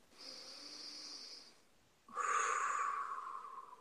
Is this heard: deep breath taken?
yes